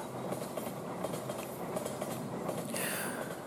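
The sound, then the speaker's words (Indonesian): A train rushes past at speed, wheels clattering over the rails in a dense, steady roar, with a brief high metallic squeal rising near the end. No voices. “Bibir keluh, hati memar, kepala bising seperti lalu kereta yang lewat dengan kecepatan yang mengejutkan kita.”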